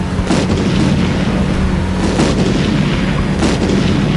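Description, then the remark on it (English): A series of large, colorful bomb balls unleashed by the Joker from the rear of his vehicle during a Batmobile chase explode one after another, three sharp booming blasts spaced a second or so apart over a constant loud, roaring rumble. No voices. “Batman prepares to open fire on the clown, but the Joker unleashes a series of large, colorful balls, which explode one by one.”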